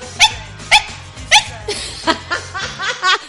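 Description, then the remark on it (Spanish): A small dog, a new puppy, barks in a rapid series of sharp, high yips, about eight in quick succession, fairly loud, with a low background hum underneath. “Uy, ¿qué eso Un ladrido. Cacharo este que tenemos un perro, ya no es un mapache, es un perro.”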